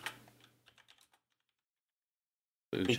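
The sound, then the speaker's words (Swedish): A short burst of typing on a computer keyboard: about a dozen quick, crisp key clicks over a second or so, then silence before a sudden loud noise at the end. “Klickety-klackety-klack.”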